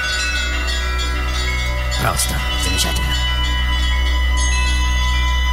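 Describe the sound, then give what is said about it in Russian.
Church bells ring out steadily on a Sunday, their rich overlapping tones sustained and resonant throughout, while a man's voice speaks briefly over the pealing midway through. “Маэстро, э, сегодня воскресенье. Э, будьте добры, колокольный звон.”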